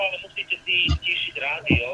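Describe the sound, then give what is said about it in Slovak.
A tinny, band-limited voice echoes back over a phone line from the caller's own radio, which was not turned down, playing in the background of the call, with a couple of low thumps breaking through. “Bude ticho, ale musíte si stíšiť rádio musíte si stíšiť rádio a počúvať nás len cez telefón, lebo tam budete mať túto ozvenu.”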